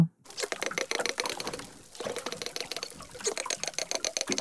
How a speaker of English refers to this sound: But now they've caught dolphins singing together too. And these animals are in sync at 600 beats a minute. The researchers sent us the dolphin sounds that they recorded. Here is one dolphin singing alone. And here are the dolphins singing together.